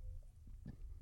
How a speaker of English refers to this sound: Did you just burp on the show, by the way? No, no, I was just uh, controlling myself.